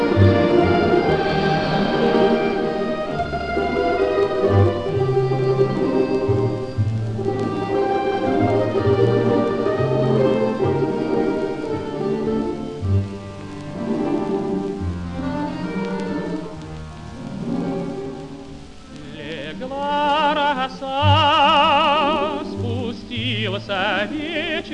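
The instrumental introduction of a Soviet song on a 1950 record plays without vocals: full, melodic ensemble music with sustained harmonic notes and a steady bass, staying fairly loud throughout, with bright wavering higher tones near the end.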